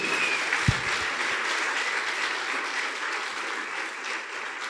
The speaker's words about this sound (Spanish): Alguien tiene que darle un aplauso fuerte al Señor en esta hora.